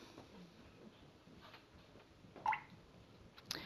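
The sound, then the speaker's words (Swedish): Soft water drops fall from a drip said to fall every five seconds, each a brief plinking tap against a quiet, faintly hissing background with no voices. “Det ni hör nu är en vattendroppe som droppar var femte sekund.”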